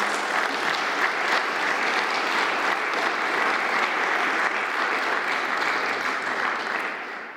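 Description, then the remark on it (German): Sustained applause from an audience at the Historikertag, a German historians' conference, clapping to thank the association's office staff for organizing the event. A dense, steady wash of many hands clapping at a loud, even level that tapers slightly at the end, with no talking over it. “Ich finde auch, da können wir auch klatschen.”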